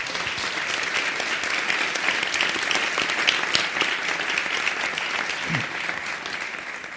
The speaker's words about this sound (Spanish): démosle un gran aplauso a Eugenia y a Ricardo